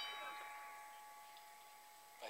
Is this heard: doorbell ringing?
yes